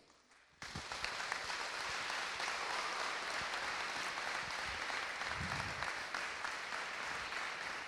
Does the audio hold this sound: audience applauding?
yes